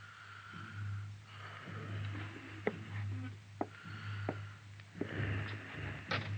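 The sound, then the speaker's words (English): Slow, rasping breaths of a wounded man in bed rise and fall in a quiet room at night over a steady low hum, each exhale a soft hoarse rush, with a few faint clicks scattered between them. “The only sound in the room was the hoarse, slow breathing of the wounded man.”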